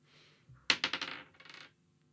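Dice clatter onto a hard surface, a quick burst of sharp rattling knocks that bounce and tumble for about a second before settling, with no voices.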